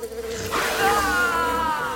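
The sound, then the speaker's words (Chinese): A bee buzzes loudly and steadily for about two seconds, its droning hum sliding upward in pitch partway through, with no voices; it is the Pumpkin Bee Robot of a cartoon story sneaking up to attack. “QQ 力霸王的背后出现了南瓜蜜蜂机器人，准备偷袭过去。”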